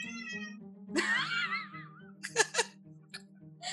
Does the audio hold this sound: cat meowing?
yes